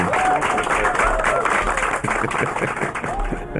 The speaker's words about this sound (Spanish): Y el público le aplaude.